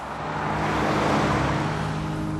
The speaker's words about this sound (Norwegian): Så vi bare fikk barna eh, med oss fra skole og barnehage, pakka fort, og så heiv vi oss i bilen nordover.